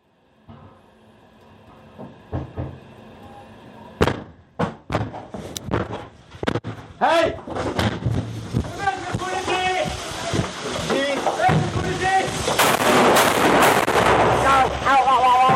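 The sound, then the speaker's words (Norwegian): Heavy thuds and crashes as police break in the door of a flat in an apartment block, followed by three sharp, loud gunshots as police shoot a man in the upper body. Then chaotic, noisy commotion with shouting voices that builds and continues. “politiet slår inn døren og skyter ham tre ganger i overkroppen.”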